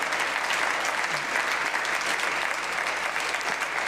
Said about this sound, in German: Und gib doch einfach Boris Geschenko einen kräftigen Applaus.